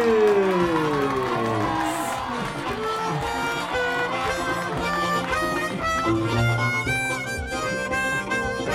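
Loud, steady applause and cheering from a crowd that carries on for about nine seconds, mixed with shrill whoops and tonal, music-like sounds, with no clear talking.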